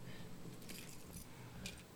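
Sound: keys jangling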